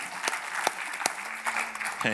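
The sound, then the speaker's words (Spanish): An audience applauds, a dense wash of many hands clapping steadily with a few sharper claps standing out, and a faint tonal hum running underneath. “ese aplauso no parece que fue para el Señor.”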